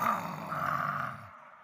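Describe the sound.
A person lets out a loud, sustained roar in imitation of a big animal, a single gravelly growl lasting just over a second before trailing off.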